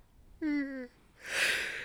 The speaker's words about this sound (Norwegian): Og se, der kommer det en liten gjesp, og ja. da veit jeg at da blir jeg smitta. og da var det sikkert halvparten av lytterne òg smitta av den.